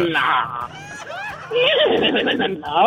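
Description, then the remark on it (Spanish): A person's voice imitates a horse's whinny, a loud, wavering, high-pitched neigh lasting a few seconds with rising and falling pitch. “el relinchido”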